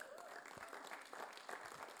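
An audience applauds steadily, a dense wash of many hands clapping at once at moderate loudness, sustained with small swells and no pauses.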